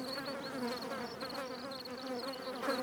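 A mosquito's thin, whining buzz drones steadily, with slight wavering in pitch and no pauses, heard on its own with no voices.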